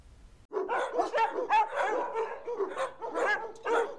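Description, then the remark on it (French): Several dogs bark and yip in a rapid, overlapping burst, loud, with a few whiny higher-pitched yelps mixed in, continuing for about three and a half seconds. “Qu'entends-tu Est-ce des chiens ou des lions Ce sont des chiens qui aboient.”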